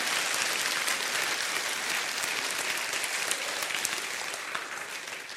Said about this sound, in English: He loves you with a love that's unconditional. Would somebody clap for that God right now? Because that's how He loves us all.